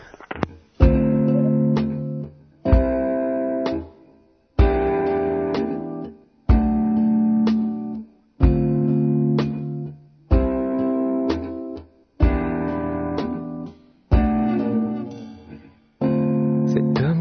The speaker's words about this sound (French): on va écouter un petit morceau